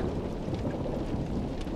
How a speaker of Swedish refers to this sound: Sten tyckte åskan var lite otäck och gick därför med på Flisas plan.